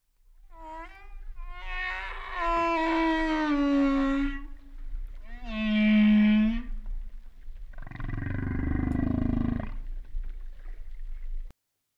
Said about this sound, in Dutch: Dat was de bultrug walvis. En volgens mij kunnen die ook 16 kilometer verder te horen zijn